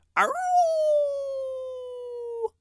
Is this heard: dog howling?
yes